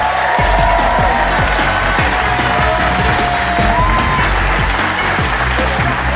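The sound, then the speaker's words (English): A large audience at the Leicester Square Theatre bursts into sustained, loud applause for Phill Jupitus, with whoops and cheers mixed in, a dense, continuous wash of clapping that does not let up. “Ladies and gentlemen, give it up, Phill Jupitus!”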